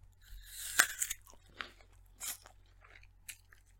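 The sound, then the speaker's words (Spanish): A loud, crisp bite into an apple, followed by several wet, crunchy chewing sounds, each crunch short and irregular, with no talking. “Ahora cómete la manzana.”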